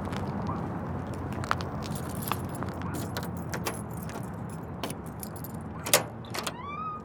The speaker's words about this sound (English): I walk back to my car and slam the door.